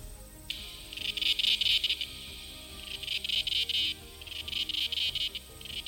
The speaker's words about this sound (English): it resembles the sound of a jet plane or a circular saw working. Some people can't stand it and run away from the singing swarm, but many also say that cicadas make a pleasant sound that envelops you from all sides, which is a pretty unusual feeling.